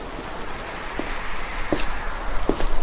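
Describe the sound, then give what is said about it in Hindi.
Slow, muffled footsteps approach from behind a closed door: three soft, evenly spaced thuds that grow slightly louder over a faint background hiss, with no voices. “तीसरी बार खटखटाने पर दरवाजे के उस तरफ से एक चलने की धीमी आवाज आई”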